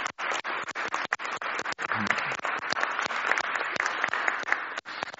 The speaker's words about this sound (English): So I think we want a big round of applause for them both, don't you?